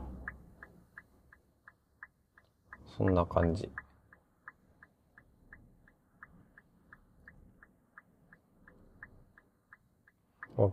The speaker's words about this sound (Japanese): 車の中ってこうやってあのウィンカーの音とか入っちゃうんで、あんまり良くないのかなーって思うんですけどね。